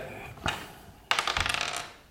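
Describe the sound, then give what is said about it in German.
A small die clatters onto a hard tabletop, one short knock followed by a quick burst of rapid rattling bounces as it tumbles to a stop, fairly loud. “Wir können erstmal würfeln.”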